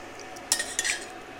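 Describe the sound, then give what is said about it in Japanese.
Spaghetti being lifted out of the pot, lightly drained and put straight onto a plate without a colander: two quick bursts of metal utensil clinks and wet scraping against cookware, with quiet room tone before and after. “よしスパゲティできたこれを食べるよもうねやっつけですよざる でお湯切ったりとかもしないもうこの鍋から揚げてちょっと軽く水切ったらもうそのまま皿”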